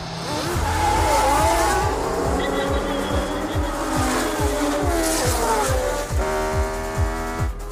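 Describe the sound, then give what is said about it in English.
Race car engines roar loudly at the Grand Prix of Monaco with rapid gear-shift pulses, while tires squeal in high, sliding tones over the continuous engine noise. “he decides to drive in the Grand Prix of Monaco.”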